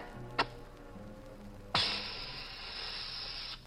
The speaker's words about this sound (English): I'll light a flare here